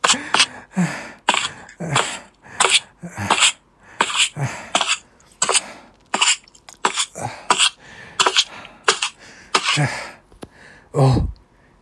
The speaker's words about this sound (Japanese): いや、なんでしょう。どうやら止まってしまったようです。えー、息が荒いですね。